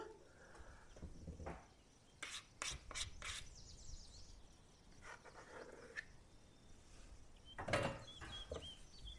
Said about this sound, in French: Je termine avec ma marise pour bien décoller le reste de pâte sur mon cul de poule.